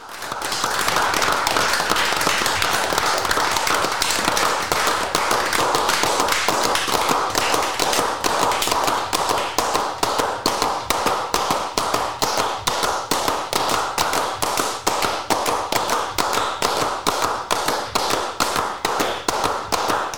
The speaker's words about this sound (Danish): Fordi det her, det er altså simpelthen bare folk, der klapper, og det er altså sådan, remixet starter.